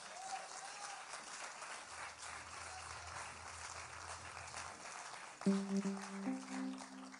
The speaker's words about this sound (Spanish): Den un aplauso por esta vida que pasa.